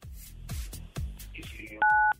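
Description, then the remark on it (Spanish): A single loud, steady telephone keypad tone sounds near the end, following a stretch of rhythmic low thumps and percussive hits; a caller in Iztacalco presses 977 on their phone during a call to La Mejor 97.7 FM. “Entonces presiona en tu teléfono el 977.”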